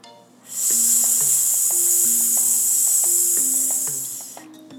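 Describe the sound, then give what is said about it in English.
A long, steady hiss like a drawn-out S, a voice imitating a snake as breath is slowly let out during a belly-breathing exercise, lasting about four seconds with soft music beneath it. “When you let out the air, you can make the sound of a snake or the letter S.”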